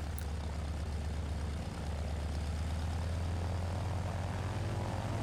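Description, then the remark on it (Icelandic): A steady, loud drone of propeller aircraft engines, a low throbbing hum with a constant pulsing rhythm that holds throughout, with no voices. “Hljóðið frá mótorunum heyrðist inn í bæin og menn fóru að skema í kringum sig og allir sem skemiðu ráku augun í það sama”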